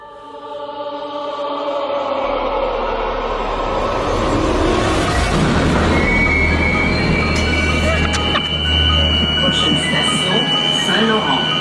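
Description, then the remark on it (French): A metro train roars loudly through a station, with deep rumbling, metallic screeching and a sustained high-pitched whine that builds into an eerie, unsettling drone likened to a horror-film ambience; the noise has drawn 95 complaints this year. “Et euh, dans l'article de la presse, on évoque le fait que ça ressemble à une espèce d'ambiance de film d'horreur.”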